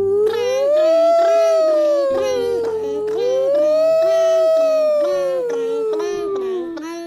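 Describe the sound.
Voices imitate a fire truck siren, a loud wail that rises and falls in two slow sweeps, with a second voice chiming along as the bell.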